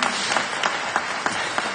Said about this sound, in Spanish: Si lo cree, den un fuerte aplauso a Jesús.